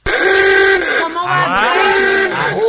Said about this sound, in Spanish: esos 100 voluntarios participaron en este experimento y se determinó de que el, la bocina que causa menos estrés es la bocina esta vieja de